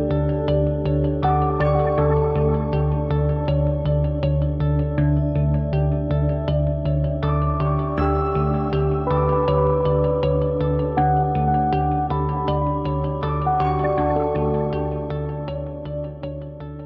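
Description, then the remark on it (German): Two 19-inch server racks in the anteroom of a studio of about 15 square metres hum and whir steadily, a deep continuous drone with layered tones above and faint rhythmic ticking, no voices, fading slightly near the end. “So, man hört sich schon surren und rauschen. Wir sind hier im Vorraum zum eigentlichen Studio.”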